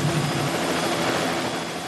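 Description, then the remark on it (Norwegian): A steady, loud helicopter roar fills the helicopter simulator at the Oil Museum (Oljemuseet), a dense continuous drone with a faint low rhythmic thrum and no voices. “Ja, nå går vi inn i det som forestiller helikopteret. Her har du jo bråket.”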